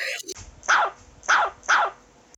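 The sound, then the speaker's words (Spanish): A dog that has climbed onto a sofa in the living room of a house barks three times in a steady rhythm, each bark loud and sharp, with short quiet gaps between them. “subió al sofá que está aquí conmigo, siempre criticando a mi pobre perro, pero así cuando te llaman uno hay que aguantarlo.”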